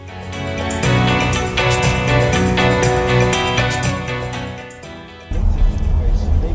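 Inside a moving bus in El Salvador on a two-hour drive to Atehuesilla: loud music plays over a constant low engine and road rumble, then cuts out near the end, leaving the rough, droning vehicle noise alone.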